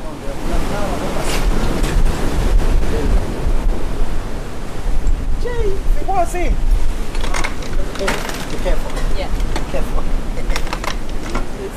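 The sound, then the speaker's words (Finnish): Rough surf crashes steadily onto a beach, a loud, continuous roar of churning waves with wind buffeting the microphone and a few faint, indistinct voices in the background. “Meri ei näytä houkuttelevalta, vaan rajulta ja uhkaavalta.”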